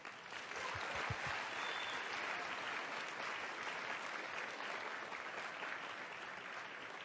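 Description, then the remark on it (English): A crowd claps steadily for the hotel staff for about seven seconds, a dense, even wash of many hands with no pauses, holding at a strong, constant level before easing slightly at the end. “the hotel staff, please. Round of applause.”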